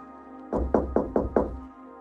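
Five quick, evenly spaced knocks as a young man stealthily knocks on the wooden door of a house, fairly loud, with a low hum in the background and no voices.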